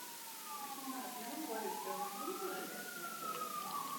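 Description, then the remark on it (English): Fire truck sirens passing outside wail steadily, their pitch sliding slowly up and down in overlapping tones, with a low murmur of voices underneath. “Those are fire trucks.”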